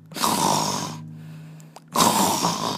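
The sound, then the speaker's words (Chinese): The big bad wolf of Little Red Riding Hood snoring in bed after eating: two loud, rasping snores, each a long harsh breath lasting about a second, separated by a quieter pause with a low steady hum; no one speaks. “大灰狼满足了食欲之后，便重新躺到床上睡觉了，而且鼾声震天。”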